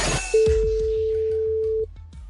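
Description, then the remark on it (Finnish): One steady, flat telephone ringing tone of an outgoing call from the Energy aamu radio show sounds clearly for about a second and a half, over soft rhythmic low thumps in the background, then stops. “jonkun puhelimen ruudusta on meidän numero 0926 hälyttää”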